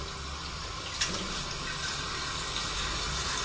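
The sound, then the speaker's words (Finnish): Tap water runs steadily into a jar, filling it up to a raised mark on the jar, a continuous hiss and splash with a brief louder gush near the start, no voices. “Mutta lasketaanpas nyt tämän,”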